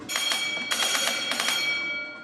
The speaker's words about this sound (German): Das war jetzt der Telegraph, also der, der Kapitän, der kann ja nicht selbst Gas geben oben, sondern der muss immer dem, dem Maschinisten anzeigen, was er denn gerne, möchte.